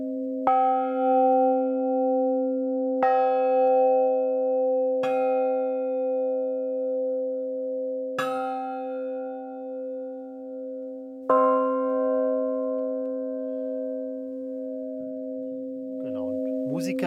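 A bell is struck five times at uneven intervals at a different spot on the bell, each clear strike ringing on with long, shimmering overtones that overlap, before a voice briefly starts at the very end.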